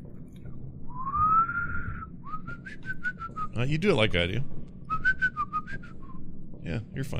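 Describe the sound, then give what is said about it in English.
Soft, breathy human whistling in a few wavering phrases, thin and a little airy, with a person briefly speaking in the middle and again near the end. “It sounds it's a fun. very ghostly whisper. Yeah, it's a ghostly you know, whisper. Whistle.”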